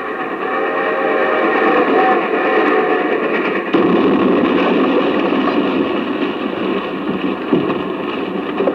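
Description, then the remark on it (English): Two steam trains, one from the east and one from the west, rumble steadily along railroad tracks toward their meeting point at Promontory Point, loud, with a sustained mechanical roar and rhythmic clatter building as they draw nearer. No voices are heard. “They're speeding to the meeting point, the historical spot at Promontory Point where the east and west will meet.”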